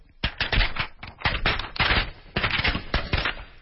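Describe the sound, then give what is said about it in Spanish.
A sheet of paper held in the hand flutters and rattles rapidly in several loud bursts with brief pauses, a buzzy flapping that mimics the sound of snoring. No one speaks. “O sea, es como si esta hoja de papel que tengo en la mano. Sí fuera nuestra estructura en la garganta, todas estas estructuras de las cuales hablaste.”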